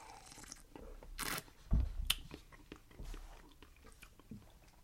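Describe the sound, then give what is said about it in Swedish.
A quiet sip of sour beer: a short slurp and a soft swallow, followed by small wet mouth and lip sounds, otherwise hushed. “Jag, jag tar en klunk nu.”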